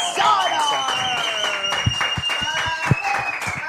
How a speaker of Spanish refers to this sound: Que qué divertido el programa, dicen, pues es que con estas dos invitadas, un aplauso.